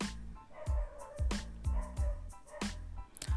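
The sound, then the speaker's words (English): Dogs bark in a lively, repeated burst of yaps and woofs, several sharp barks close together, with some higher yips mixed in and no talking. “No, not the dogs.”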